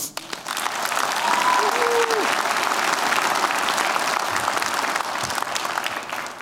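A crowd claps steadily in a dense, sustained burst of applause lasting several seconds for a man being introduced, fairly loud, with a faint tonal whistle briefly rising above it early on.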